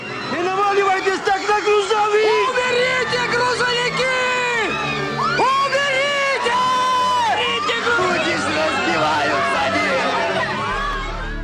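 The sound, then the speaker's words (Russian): A large crowd of protesters in Georgia marches, shouting and singing songs together loudly, with many voices chanting in unison over a constant roar of chatter that keeps going without a break. “Как говорят сами собравшиеся, они шли, пели песни и по ним открыли огонь.”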